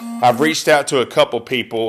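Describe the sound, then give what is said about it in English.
A short electronic text message notification chime on a phone, as an Arkansas fan texts, sounds under a man's steady talking, a clear tonal ding that's fairly soft and partly masked by the voice. “um, there's the Arkansas fan texting me right now.”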